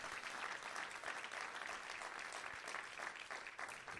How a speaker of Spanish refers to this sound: Dale un aplauso fuerte si lo crees. Vamos a dar un aplauso fuerte si lo recibes.